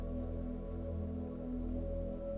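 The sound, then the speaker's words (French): A waterfall's flowing water pours steadily and evenly throughout, falling from a huge rock in a small clearing surrounded by trees, with a low sustained hum beneath it and no voices present. “Mais voici que vous entendez maintenant le bruit de l'eau qui coule, le chant d'une cascade vous la découvrez dans une petite clairière entourée d'arbres majestueux et baignée de lumière.”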